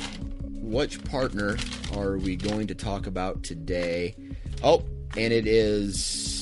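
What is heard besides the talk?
paper rustling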